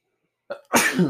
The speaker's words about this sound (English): Bless you. Bless you.